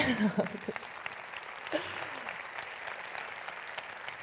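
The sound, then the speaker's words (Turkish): Audience applause at a TEDx event, a dense crackle of many hands clapping steadily at moderate volume, with a brief voice at the start and another faint vocal sound partway through. “Alkışlamayın, alkışlamayın.”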